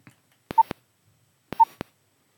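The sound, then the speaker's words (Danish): Two short phone keypad beeps about a second apart, each framed by sharp button clicks, fairly quiet against silence, with no one talking, as a phone call is dialed. “Der var lidt mange bip”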